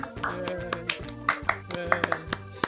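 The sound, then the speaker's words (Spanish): Scattered applause welcoming guest Sebastián De Caro on the show, a handful of sharp, uneven hand claps popping over a steady bed of voices and tonal sound, moderately loud throughout. “Eh, el aplauso, el aplauso.”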